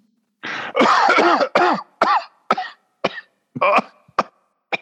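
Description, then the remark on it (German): A man who is unwell coughs in a loud fit: a long raspy hack followed by a string of shorter, sputtering coughs that thin out and space apart toward the end. “hast du zufällig Husten?”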